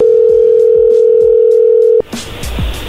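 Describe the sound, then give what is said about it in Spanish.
After the other person hangs up the phone call again, a loud, steady telephone line tone hums without a break for about two seconds, then cuts off abruptly, leaving brief rustling noise behind. “O tú no eres la dueña del celular del equipo? colgó otra vez.”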